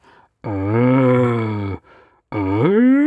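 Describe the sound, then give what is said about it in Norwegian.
A human voice imitates the roar of a young stag whose voice is breaking, as done in hunting to provoke a buck: a long, loud, droning groan, a short pause, then a second call that slides sharply upward in pitch as if breaking. “Og hvis det er stille, så kan du terge den med et lite sånn”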